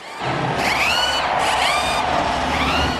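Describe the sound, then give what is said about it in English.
Race car engines roar to life and rev hard and loud, with several rising whines of revving climbing over a constant rumbling drone, and no one speaking. “Drivers, start your engines!”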